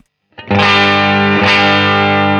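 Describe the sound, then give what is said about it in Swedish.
A distorted electric guitar chord played through a fuzz stompbox with its preamp pushed slightly rings out loud and fuzzy, sustaining with thick buzzing harmonics, then gets restruck or swelled midway before holding steady to the end. No one speaks. “Så jag ska trycka på Bounce on Preamp lite grann bara.”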